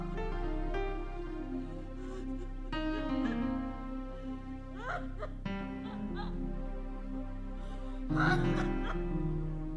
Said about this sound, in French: Vous entendez ces cris, ces pleurs, ces cris, ces pleurs. Le cœur de ces personnes et le cœur de Dieu sont en connexion.